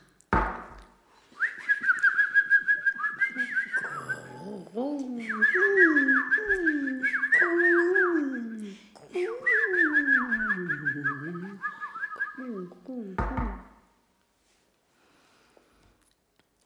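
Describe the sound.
Someone whistles a lively, bird-like melody in repeated phrases of trills and sliding notes, fairly loud, imitating a bird call for about twelve seconds before stopping.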